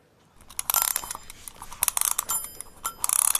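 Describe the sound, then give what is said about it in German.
A mechanical alarm clock being wound: a rapid, uneven run of ratcheting clicks with a faint metallic ringing over them, lasting a few seconds with no talking. “okay, dann würde ich sagen, ziehe ich mal den Wecker auf.”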